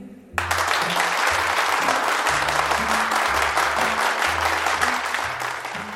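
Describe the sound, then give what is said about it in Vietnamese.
Sudden loud applause erupts after a brief quiet moment, a dense wall of clapping from a large crowd resounding through a hall, sustained steadily throughout, with a low droning tone beneath. “Đột nhiên, một tràng pháo tay râm rang vang dội khắp hội trường.”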